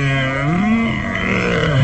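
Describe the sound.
A man's voice growls and groans in a low, strained, rasping snarl, imitating a werewolf in intense pain as its arm is twisted back and its throat held; one continuous loud vocalization that rises and falls in pitch.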